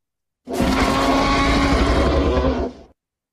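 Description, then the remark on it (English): A single loud T. rex roar sound effect lasting a couple of seconds, a deep rumbling bellow with a harsh, growling texture that starts abruptly and tapers off at the end. “Does he deserve a air horn or an applause or a T Rex? I'm gonna give him a T Rex.”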